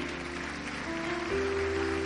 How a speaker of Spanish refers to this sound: Dale el aplauso al rey.